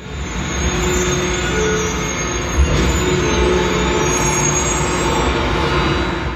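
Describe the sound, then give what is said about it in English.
A garbage truck rumbles by, its heavy engine a loud, steady drone with grinding mechanical noise that holds for several seconds, broken by one brief clunk midway. No one speaks. “it's the garbage car garbage camion camion it's the garbage car i think”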